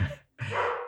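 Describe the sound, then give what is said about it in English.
Two quick barks from a dog in the background at home, separated by a brief pause, the second one longer and fuller, moderately loud, with no talking. “sorry my dog's barking in the background oh okay i'll have to bring him in”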